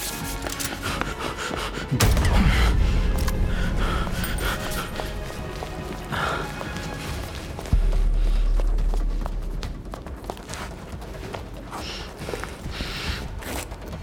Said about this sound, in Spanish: Marino se distrae por un segundo e Ismael sale corriendo.